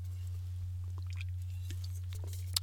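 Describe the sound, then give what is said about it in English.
Someone takes a sip of an Arnold Palmer iced tea-lemonade drink: quiet, wet mouth clicks and small slurping sounds scattered over a steady low electrical hum, with no talking. “So take a sip there, my Arnold Palmer.”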